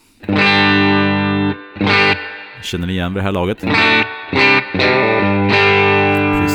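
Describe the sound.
Crunchy electric guitar chords from a Telecaster-style guitar ring out through a Universal Audio Dream 65 amp-emulator pedal with a lush reverb tail, strummed in a few sustained bursts, with a brief spoken question breaking in midway.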